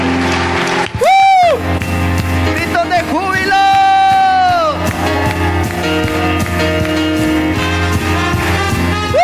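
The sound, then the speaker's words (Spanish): A church audience gives an offering of applause to the Lord during an evening service, clapping and cheering loudly and without a break, with high rising whoops and shouts cutting through the steady roar of applause. “¿Cuántos van a dar una ofrenda de palmas al Señor?”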